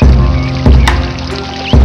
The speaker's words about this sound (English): I hear the water.